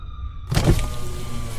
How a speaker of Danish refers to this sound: Vi er nødt til at holde ind til siden. Jeg ruller lige vinduet ned, kammerat, du.